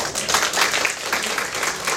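A crowd breaks into warm applause, a dense, steady patter of many hands clapping at once that stays loud and even throughout, with no voices rising above it.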